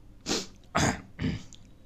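Three short, rough throat-clearing bursts in quick succession, close and fairly loud, with brief pauses between them and no speech.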